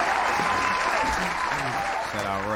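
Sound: hand clapping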